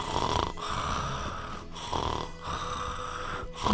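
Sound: voice imitating a snore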